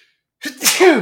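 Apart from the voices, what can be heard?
sneeze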